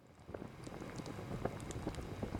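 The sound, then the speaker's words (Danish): A large pot filled with milk bubbling over a bonfire, with a steady, dense patter of small pops and gurgles and a low crackling rumble underneath, no voices. “sagde Jeppe og slog hånden ud mod en stor gryde fyldt med mælk, der stod bulrende over et bål.”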